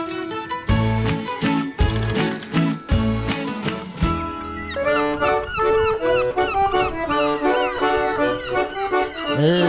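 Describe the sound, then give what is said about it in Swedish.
Heavy rhythmic thumping opens, then a flock of seagulls takes over with loud, repeated squawking cries overlapping one another, busy, with no talking. “känner igen måsarna.”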